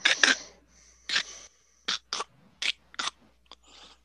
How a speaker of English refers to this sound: As bones sort of stitch themselves together, and looming up over you, the Minotaur stands back up